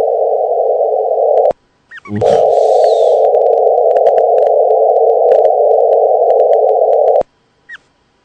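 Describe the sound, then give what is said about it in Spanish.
A wave signal recorded in space, five seconds of it captured, rendered as sound: a loud, steady electronic drone that cuts out abruptly twice, with a brief crackling burst and scattered faint clicks. No one speaks. “Ese es el sonido de la onda que se registran en el espacio.”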